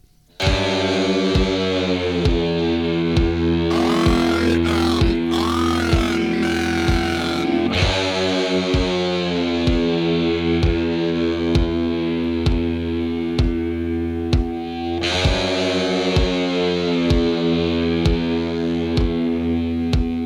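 Heavy metal music with thick, distorted electric guitar riffs over a steady, pounding drum beat, loud and continuous throughout, with a brief swirling, chaotic passage midway before the riff returns.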